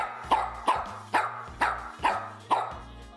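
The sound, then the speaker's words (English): A small, fairly old dog named Haas, a Yorkie and wiener dog (dachshund) mix, barks six times in a steady, evenly spaced rhythm, each bark short and sharp, clear with no talking over it. “He's a Yorkie Wiener dog mix.”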